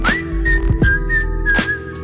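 whistling a tune

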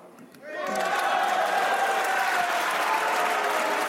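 applause in parliament chamber

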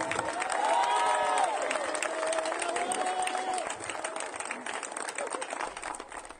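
audience clapping

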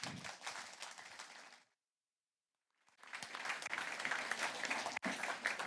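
audience applause

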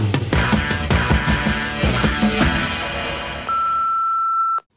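answering machine beep

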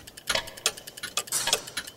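pendulum clock ticking

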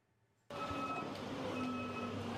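train

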